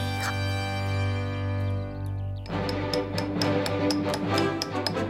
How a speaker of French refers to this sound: Du matin au soir, l'homme s'acharne sur de gros blocs de marbre. Avec un marteau et une sorte de pic qu'on appelle un ciseau, coup après coup, il taille la roche, il la découpe, jusqu'à obtenir des morceaux à la forme parfaite.